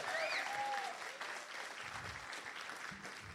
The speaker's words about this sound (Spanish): Vamos, denle un aplauso fuerte a Jesús.